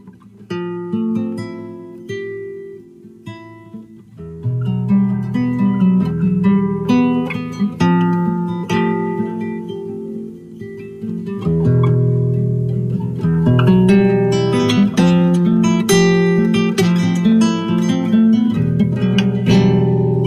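Acoustic guitar played live, strummed chords ringing out steadily and filling out after a few seconds, with a full low end and bright plucked overtones; no singing is heard.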